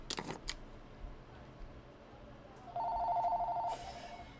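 A few quick clicks, then a single steady electronic telephone ring lasting about a second, clear over a low background hum, a call coming in at NJ Weedman's Joint.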